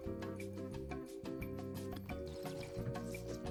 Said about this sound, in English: Mm. And he's he's aerating it. He's chewing the wine. Really get the flavor notes.